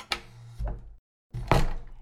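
A door is opened with a low wooden rumble and a sharp click as someone sneaks out in the middle of the night, then after a brief silent pause it moves again with a heavier thunk. No voices.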